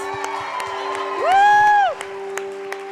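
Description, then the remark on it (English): An audience claps and cheers for the faith kids, with scattered sharp claps over a busy crowd murmur and one loud, sustained whoop rising and falling in the middle, while a steady low tone hums underneath. “I know I'm little like them, but give it up for our faith kids.”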